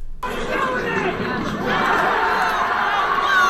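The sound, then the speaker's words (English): A large baseball stadium crowd roars in the stands after a Phillies fan throws a Mets fan's phone onto the field and the Mets hit a home run. A dense wash of cheering and overlapping shouts swells steadily louder over a few seconds. “so what you just heard was a Phillies fan throwing a Mets fan's phone out of the field, and after they the Mets hit a home run.”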